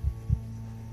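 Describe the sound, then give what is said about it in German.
A heavy, pounding heartbeat: deep, muffled thumps in a lub-dub pattern, prominent, over a steady low electrical hum with no voices. “Sie lauscht angespannt, hört den pochenden Puls, traut sich kaum zu atmen.”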